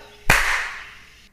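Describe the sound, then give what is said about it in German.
A single sharp clapperboard snap, a loud crack that cuts in suddenly and then trails off in a hissy ring lasting about a second. No one speaks. “Klappe.”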